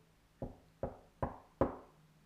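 A boy shyly knocks four evenly spaced times on a wooden door, each knock a little firmer than the last, with a short hollow decay after every rap. The knocking is soft, with no voices.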